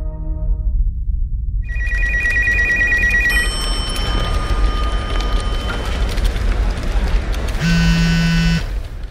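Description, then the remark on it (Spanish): An electronic phone ringtone of a call to the director of the SQ Lingüistas Forenses laboratory warbles in short repeated bursts over a steady low rumble, with bright tonal beeps layered on top; no one speaks. “llamamos a la directora en Ciencias del Lenguaje y directora del laboratorio SQ Lingüistas Forenses”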